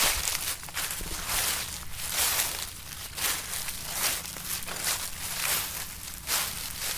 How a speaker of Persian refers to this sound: وقتی رو برگا را میرین صداشون رو شنیدین؟ وقتی رو برگا میدوین صداشون چجوریه؟ به نظرم بعضی وقتا صداشون شبیه آهنگ میشه